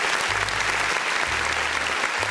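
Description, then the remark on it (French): Steady applause from many hands for a singer named Time magazine's Person of the Year 2023: a dense, continuous clatter of clapping filling the whole stretch, with a low humming tone running underneath in two long bursts. “on, l'applaudit, évidemment.”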